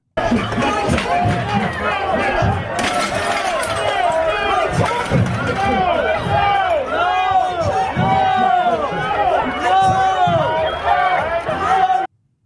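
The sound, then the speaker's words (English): A chaotic crowd in a restaurant at night fills the space with overlapping shouts, screams and frantic voices, feet pounding as people run about, with sharp crashes, bangs and shattering glass punctuating the continuous loud commotion. “There's shattering glass, people screaming and running.”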